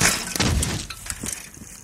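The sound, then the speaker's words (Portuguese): A cyclist slams into the suddenly opened door of a parked car: a loud, harsh crash with rattling, clattering impacts that tail off over about two seconds, no voices. “Tava ali pedalando tranquilinha e de repente o motorista daquele carro estacionado ali abre a porta de supetão e.”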